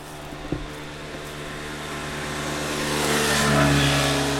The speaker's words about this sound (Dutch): Ja, we zijn hier nu op de verharde weg en daar komt wel eens een brommertje voorbij.